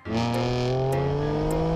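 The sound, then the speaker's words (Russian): A car engine revs steadily and loudly, its droning pitch climbing slowly over a couple of seconds, with no one speaking. “Машина у Валеры классная и очень угоняемая.”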